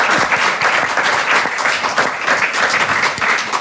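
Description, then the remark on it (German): An audience applauds steadily as a farewell thank-you to guest Ulrike Herrmann of the taz, many hands clapping in a dense, continuous patter that stays loud and even throughout, with no pauses or voices breaking through. “Wir verabschieden uns mit einem großen Dankeschön und einem Applaus bei Christian Lindner-Fanin Ulrike Hermann von der Taz.”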